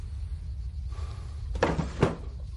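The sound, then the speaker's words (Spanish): A drawer slides briefly along its runner, then shuts with two short, solid wooden knocks about half a second apart, over a steady low hum. No one speaks. “Pedro cierra un cajón.”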